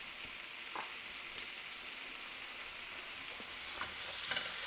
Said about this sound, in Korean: 불을 조금 세게 하면서 김치랑 깍두기들을 아주 공격적으로 이제 볶아줄 거예요. 양을 좀 많이 해가지고 너무 많이 했네 1인분만 하면 되는데